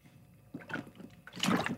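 Quiet sipping and swallowing of water: a few soft wet slurps and gulps over about two seconds, with a brief louder splash of liquid near the end and no talking.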